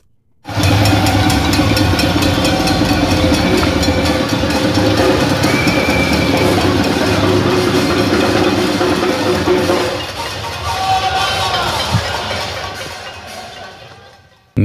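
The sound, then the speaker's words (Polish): A dense, continuous clatter of many pots and other kitchen utensils being banged together by residents of São Paulo protesting against President Jair Bolsonaro, holding steady for about ten seconds before thinning out and fading. “To, co Państwo słyszeli, to e, dźwięk e, uderzających o siebie garnków i różnych innych przedmiotów e, kuchennych.”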